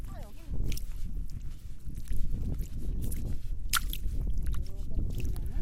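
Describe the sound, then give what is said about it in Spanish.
Bare feet squelch and squish through soft, wet mud of a marsh by the sea as the tide rises, in a steady run of sloppy steps, with light watery sloshes and brief voices in the background. “Sin zapatos, nos dirigimos hacia la ciénaga. Qué suave que es el lodo, es tan suave que puedo sentir el barro entre los dedos de los pies.”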